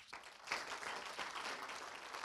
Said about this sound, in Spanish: ¿Cree usted en la sanidad? ¿Cuántos creemos que hay sanidad en el nombre de Jesús? Si lo cree, dele un aplauso.